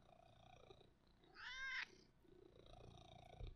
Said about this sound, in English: Do you hear him? I just want you to hear his purr. Purr into the microphone. Come on, over here. Purr.